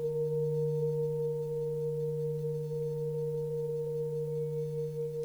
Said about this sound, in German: beginnt nun dazu das Licht des Klanges sich ebenfalls auszudehnen. Ein Lichterspiel entsteht. Schau mal, welche Farbe das Licht der Klangschale hat.